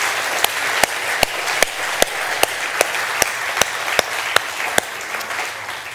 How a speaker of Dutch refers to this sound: Zullen we God een groot applaus geven vanmorgen voor wat Hij aan het doen is?